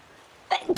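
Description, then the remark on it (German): A single sharp sneeze bursts out after a moment of quiet, a brief voiced intake followed by a loud, breathy explosive burst, fairly clear. “Gesundheit.”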